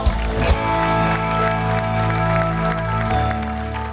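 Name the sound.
loud audience applause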